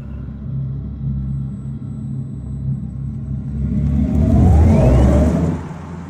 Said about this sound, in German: Klingt futuristisch. Ja, man merkt schon, es ist ein Elektroauto, futuristisch, aber es ist nicht dieser normale Elektroauto-Sound, wie so Bü macht, sondern es klingt irgendwie ein bisschen hm, anders, einfach dumpfer.